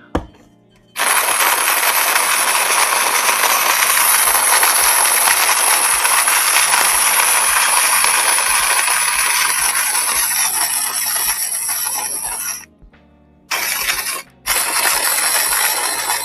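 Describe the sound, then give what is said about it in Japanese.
A loud, steady grinding whir of a coffee grinder crushing beans inside a house in Hakuba village runs for about twelve seconds, cuts out briefly twice, then resumes near the end. No one speaks. “じゃちょっと今から豆を引くので、音がうるさくなるかもしれません。”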